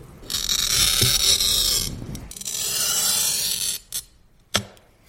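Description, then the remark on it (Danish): A glass cutter with a hardened steel wheel scores a piece of mirror, making a score line along which the glass can be snapped: two long, steady, hissing scratches, fairly loud, followed by a couple of sharp clicks as the tool lifts and taps. No one speaks. “I dag prøver man en glasskær med et hærdet stålhjul nede for inden, og så skærer man glasset ved at lave en ris i det”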